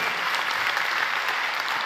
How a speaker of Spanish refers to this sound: Si usted lo cree, dele un fuerte aplauso a Jesús.